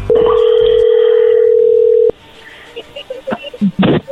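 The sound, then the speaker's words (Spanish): A telephone call connecting: a loud, steady mid-pitched line tone holds for about two seconds, then cuts off abruptly, leaving faint clicks and soft rustles on the line. “A ver, no haga ruido, parece que ya entró ahí la llamada, le va a llamar el lobo, no haga ruido.”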